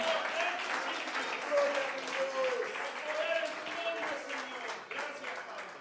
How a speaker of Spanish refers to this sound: Alguien le agradece con una alabanza y un aplauso en espíritu y en verdad.